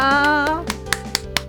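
A sustained sung note fades out, followed by four sharp hand claps at a steady, even pace, each one a crisp, bright smack.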